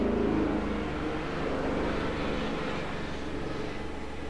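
A steady, heavy engine roar with a deep rumbling low end from a squadron of military attack helicopters flying over a hut, holding fairly even loudness throughout with no voices.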